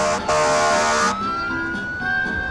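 sirens wailing

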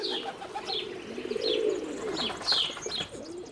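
domestic pigeons cooing

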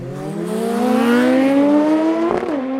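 motorcycle engine revving

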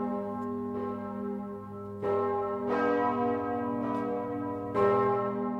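church bells ringing

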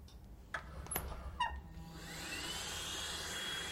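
vacuum cleaner running

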